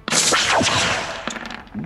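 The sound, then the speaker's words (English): A loud cannon-like shot, a sound effect for a single hail cannon attack in a dice game, bursts out, followed by a roaring, sweeping rush of noise and a second smaller blast near the end, with no voices. “All right, I'm gonna go for the hail cannon. Single attack.”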